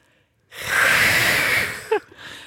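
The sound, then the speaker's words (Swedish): Someone imitates the hiss a cat makes when other cats come too near: one sustained, breathy hiss lasting over a second, loud, ending in a short voiced catch. “Fast nu, nu, går det liksom, nu måste de komma väldigt nära för att de ska börja fräsa.”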